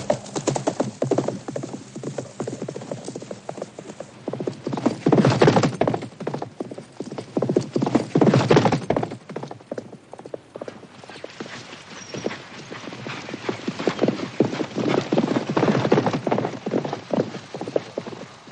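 Horse hooves pound in a steady galloping rhythm, loud, with rapid clip-clop beats continuing throughout, briefly swelling and easing before picking up again, as a rider gallops on horseback toward a ranch.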